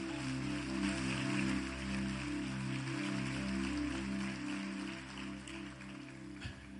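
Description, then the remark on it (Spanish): A church audience applauds the Lord in a dense, steady wash of clapping that fills the whole stretch, with a low sustained droning tone running underneath and no one speaking. “Dale un fuerte aplauso al Señor.”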